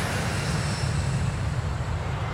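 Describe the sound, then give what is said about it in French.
A steady, loud engine roar with heavy low rumble and broad hiss as an airplane powers up for takeoff, holding constant throughout with no voices. “Voilà le décollage d'une expédition aussi ambitieuse qu'atypique”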